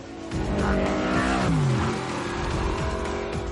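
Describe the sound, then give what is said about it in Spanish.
In a film scene, Toreto's car engine revs loudly and continuously as it accelerates and pulls up beside Letty's car, its droning harmonic roar sliding in pitch midway before climbing again, with no talking. “Toreto acelera y se coloca junto al coche de Letty.”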